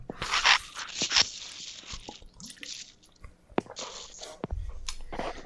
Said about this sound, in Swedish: Det prasslar mycket i legolådan nu.